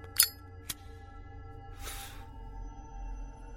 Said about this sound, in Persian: یه نخ برداشت و یه دونه هم داد به من فندک فندک زیپاشو روشن کرد و آورد تا سیگارم رو روشن کنم